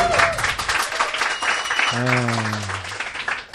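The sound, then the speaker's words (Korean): An audience at a church testimony gathering claps steadily, a dense patter of many hands lasting the whole moment, while a single voice rises over it midway with a drawn-out, sliding call. “네, 맨 앞에 박수가 조금 어색하긴 했지만 그렇죠?”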